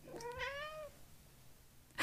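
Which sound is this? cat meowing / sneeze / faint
cat meowing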